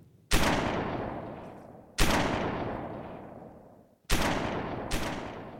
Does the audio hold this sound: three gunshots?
yes